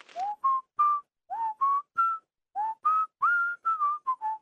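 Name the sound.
whistling a tune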